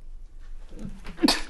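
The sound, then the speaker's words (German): A single sharp sneeze bursts out, starting with a brief breathy intake and ending in a loud, bright burst of air. “Gesundheit. Gesundheit.”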